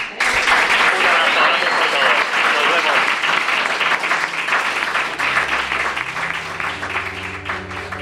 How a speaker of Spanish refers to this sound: con este aplauso te damos las gracias y te despedimos esta noche.